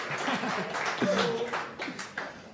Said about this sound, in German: Darf, Moment, also darf da schon mal ein bisschen Applaus angeben?